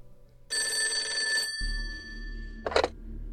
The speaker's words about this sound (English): phone started ringing off the hook, with women calling in to hastily deny any involvement in the Sims murders.